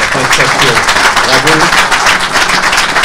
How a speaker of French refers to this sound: Il est 20h35, donc on va t'applaudir,